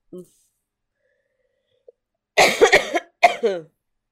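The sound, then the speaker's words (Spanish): A brief throat noise, then after a pause a burst of harsh, rattly coughing and a thick clearing of the throat, loud, in two quick bouts, from a person with a cold and phlegm in the throat. “Tengo catarro, una flema en la garganta que no me deja ni vivir.”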